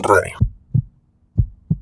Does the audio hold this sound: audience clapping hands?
no